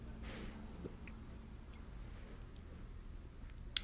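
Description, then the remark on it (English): Someone drinking water: a soft sip, then a few quiet swallows and small wet mouth clicks spread over several seconds, with no talking. “sorry, drinking water”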